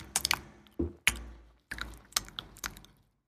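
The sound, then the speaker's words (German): Close, wet mouth sounds and chewing-like smacks and clicks imitated by a voice, arriving in irregular bursts right at the microphone with short pauses between, no words spoken. “eine Snickers und machen das direkt am Mikrofon, machen die das auf”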